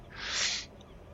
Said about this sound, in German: Oh, eine Möwe. Ja.